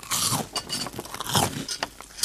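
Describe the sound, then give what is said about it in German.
Someone crunching on dry cheese sticks: a run of crisp, irregular bites and chewing crackles, fairly loud and bright, with no talking over it. “Und dann habe ich trockene Käsestangen und ein Glas Wasser bekommen.”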